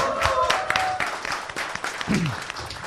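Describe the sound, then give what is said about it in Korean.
A crowd applauds steadily for the whole stretch, a dense rattle of many hands clapping at once, with a faint sustained tone early on and a brief vocal cry near the end. “네두 분께 큰 박수 부탁드리겠습니다.”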